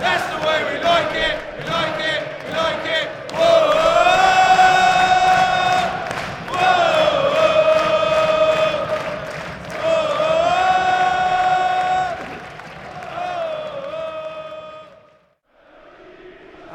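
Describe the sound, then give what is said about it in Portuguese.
A loud football stadium crowd at Selhurst Park chants in unison during a Manchester City match in the last minutes after a free-kick goal, with sustained sung phrases swelling and repeating over a dense roar of cheering, before briefly dropping off near the end. “E City sem ter que suar muito, mas aí com gol de falta para botar um pouco de tensão nos últimos 10 minutos e a torcida finalmente acordou um pouco aqui, ó.”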